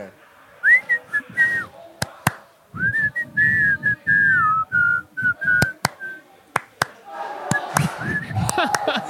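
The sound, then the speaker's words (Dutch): A person whistles a lilting melody in clear, sustained phrases while another person claps sharply and irregularly, with some low background murmur and movement underneath. “Dan kan ook eentje fluiten en de andere eh, klappen.”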